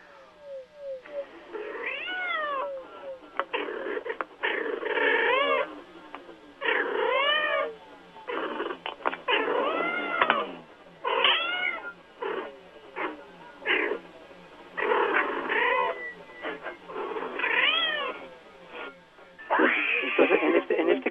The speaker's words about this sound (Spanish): insisto, hay un movimiento también ahí eh, de, la boca eh, y hay un como semirronroneo, que no lo es como tal, eh, pero bueno, también ahí se está comunicando.